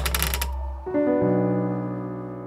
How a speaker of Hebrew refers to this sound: דובי חבק אותי חזק, כי אני כל כך מפחד, ויש פה דלת שחורקת כל הזמן.